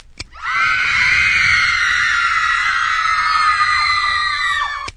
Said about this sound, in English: I got a screaming machine right here. Yeah? It replaces a teenage audience. We put it in the back of the auditorium, push the button, Panicsville. Here, listen.